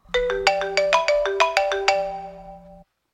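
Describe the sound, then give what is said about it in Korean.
A melodic phone ringtone for an incoming call from the speaker's mother plays a quick sequence of bright electronic chime notes, fairly loud, ringing out on its own before cutting off abruptly after nearly three seconds. “그런데 잠시 후 어머니에게서 전화가 왔어요”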